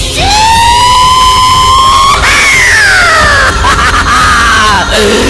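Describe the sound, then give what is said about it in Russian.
A crowd of children shouting together in a loud, sustained chorus, their high voices rising, holding, then sliding down in long drawn-out yells over about five seconds. “Просто замечательно! И, как говорится, чем больше, тем лучше! Огромный хор!”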